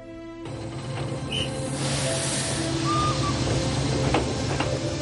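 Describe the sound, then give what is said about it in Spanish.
A train pulls in at the small station of Alosno with a steady low rumble and airy hiss, short high-pitched brake squeals cutting through, after a brief buzzy horn-like tone at the very start. No one speaks. “Días después, Mari baja con su madre del tren en la pequeña estación de Alosno.”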